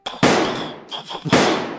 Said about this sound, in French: Les, policiers vous entendez des, coups de feu qui partent